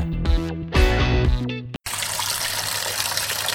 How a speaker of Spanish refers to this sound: Papá, está bien que te protejas con el lavado adecuado de las manos, pero no abuses desperdiciando tanta agua.